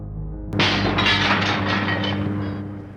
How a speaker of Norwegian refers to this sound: Omtrent halvferdig ble vi skremt av en rute som knuste.